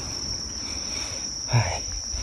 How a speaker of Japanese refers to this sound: まあけどこう虫の音が、秋の虫の音が聞こえてくると、ああ、ちょっと本格的な夏は過ぎていったかなという気がしてきますね。